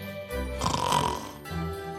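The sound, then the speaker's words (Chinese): A voice imitates QQ Pig, a cartoon pig, snoring in deep sleep: one long, rasping, rumbling snore that swells and fades, then a second snore begins, loud and alone with no talking. “不管麋鹿他们怎么叫或是怎么喊，都吵不醒呼呼大睡的 QQ 猪。”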